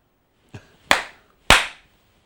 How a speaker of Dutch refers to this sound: Dus in je gebed gebruik, sla je handen op elkaar. Want dat versterkt de voorbeden.